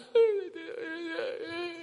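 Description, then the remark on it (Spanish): A voice imitates whimpering and crying, a high wavering whine that starts abruptly and sags into sobbing, whimpery sounds for about two seconds, fairly loud. “Siempre está llorando.”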